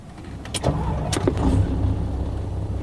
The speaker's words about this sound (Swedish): hoppar in i lastbilen och börjar köra söderut.